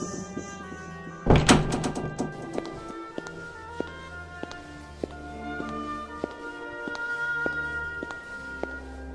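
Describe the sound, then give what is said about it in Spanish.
A door shuts with a loud thud, quickly followed by a couple of heavy thumps as two suitcases are set down on the floor at home, then a quiet room with faint, evenly spaced ticking. “En efecto, apenas llegaron a su hogar, y quedó la puerta cerrada y las dos maletas en el suelo”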